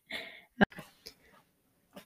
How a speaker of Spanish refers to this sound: ya que afuera mis perritos, bueno, no mis perritos, los perros de mis vecinos están aullando y aparte está lloviendo mal plan, entonces hay como que mucho ruido